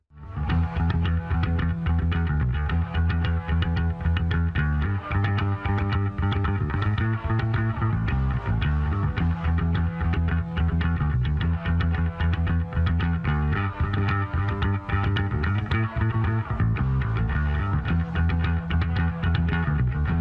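A loud, dense heavy metal track plays without pause, driven by a steady, rapid galloping bass rhythm beneath distorted guitars and drums, with no voices over it.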